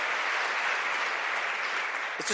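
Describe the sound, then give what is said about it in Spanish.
An audience applauds loudly and steadily as applause for the living God, a dense wash of many hands clapping at once that holds at full strength throughout, with a brief voice surfacing right at the end. “y démosle ese aplauso fuerte al que vive.”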